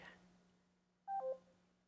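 A brief two-part electronic tone, like a call-connecting chime, sounds once from an Alexa smart speaker placing a phone call to a mobile number, after a faint noisy moment, with a steady low hum underneath.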